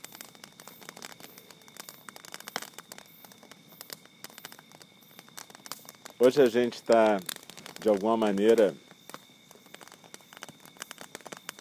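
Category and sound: nature, crackling bonfire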